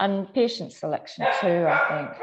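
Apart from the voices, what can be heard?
dog barking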